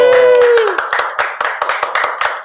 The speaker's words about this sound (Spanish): aplauso.